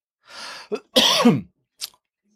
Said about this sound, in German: Entschuldige, muss einmal husten jetzt, ja.